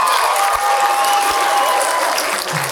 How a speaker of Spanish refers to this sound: Oye, eh, un aplauso para Alex Fernández, el show.